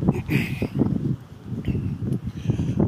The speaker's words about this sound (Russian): Ой, ребят, да, прошу отнестись с пониманием. Очень ветрено сегодня опять нас. Надеюсь, слышно будет.